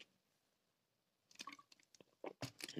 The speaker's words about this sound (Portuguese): Bebo água.